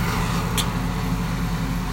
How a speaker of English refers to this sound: So, lots of noises today. But, oh, there's the lawnmower.